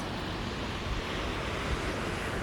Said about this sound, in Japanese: 今、海岸に来て、海岸に座って配信しております。